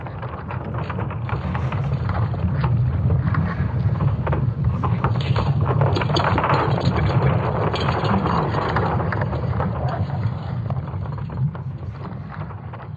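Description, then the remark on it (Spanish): A sonified recording of Earth's magnetic field and gravity: a deep, continuous rumbling roar with grinding, crackling texture, steady and loud throughout with no voices. “Sino que en realidad como lo graban es con la grabación del campo magnético y de la gravedad de la Tierra, entonces les voy a dejar aquí una pruebita de cómo suena.”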